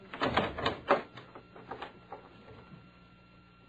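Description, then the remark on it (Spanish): An unlocked hotel room door opens for police officers with a quick cluster of clunks and rattles, followed by a few softer knocks as it settles, over a faint steady hum. “Pueden pasar, señores. La puerta no tiene llave.”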